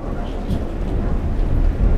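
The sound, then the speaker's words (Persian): After lightning, a deep, rolling rumble of thunder swells and holds over a steady wash of rain, loud, filling the whole moment without any voices. “کمی بعد آسمون برق زد و رد قرید و بارون بارید.”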